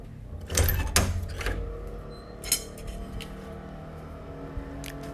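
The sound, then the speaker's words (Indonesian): Motorcycle engines rumble steadily outside at night, heard through a kitchen window, a low droning hum, while a few sharp clunks and knocks sound, like a door or drawer. “Malam-malam suka banyak suara motor tau.”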